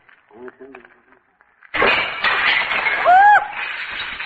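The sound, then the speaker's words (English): A short murmur of voice gives way to a loud, sustained crash of breaking and clattering as a heap of files is thrown out a window, with a brief ringing squeal partway through. “why did you throw those files out the window?”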